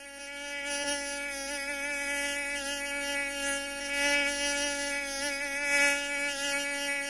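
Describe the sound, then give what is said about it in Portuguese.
A mosquito's thin, high-pitched whine hums steadily, wavering slightly in pitch as it hovers by someone's ear, with no voices present. “Esse inseto voador se chama pernilongo.”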